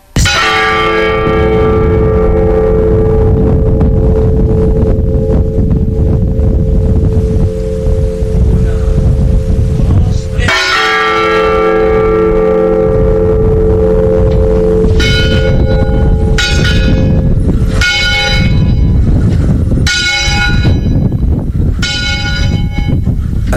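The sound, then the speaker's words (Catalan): A church bell, recorded directly in a bell tower, tolls loudly to announce the death of a woman: two slow, long-ringing strokes followed by a quicker run of strikes, with a steady rushing noise like wind or rain underneath. “Aquest que hem escoltat era, eh, era és, per anunciar la mort d'un home i aquest altre és per la mort d'una dona.”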